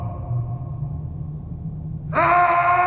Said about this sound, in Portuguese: Aqui faz muito frio. Até faz eco. Ouça.